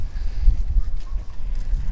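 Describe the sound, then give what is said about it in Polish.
Strong wind over open meadows buffets the microphone in a constant low, rumbling roar, with irregular thumping gusts and no speech over it. “Na tych Zbiera. łąkach duży wiatr, to wszyscy pewnie słyszą teraz w mikrofonie.”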